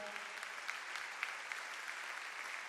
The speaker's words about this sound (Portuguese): Pode aplaudir porque ele é bom.